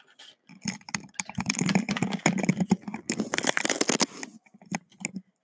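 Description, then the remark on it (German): A sheet of paper tears in a long, crackling rip lasting several seconds, with irregular rustling bursts, followed by a couple of short, quieter tears at the end. “Ich, ich zerreiße jetzt ein Blatt.”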